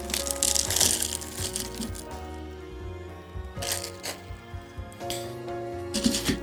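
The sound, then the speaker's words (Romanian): Ice Division nugget ice tumbling into a glass: bursts of crunchy, rattling clatter with sharp clinks, coming in three separate pours with quieter pauses between, over a low steady background hum. “Am adăugat și niște gheață nugget, Ice Division.”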